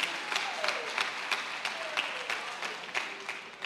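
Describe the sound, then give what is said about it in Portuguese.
An audience applauds the Lord Jesus steadily, a dense wash of many hands clapping at a moderate level with a few sharper claps standing out, and a faint tone sliding downward in the background. “Glória a Deus, aplauda aí o Senhor Jesus.”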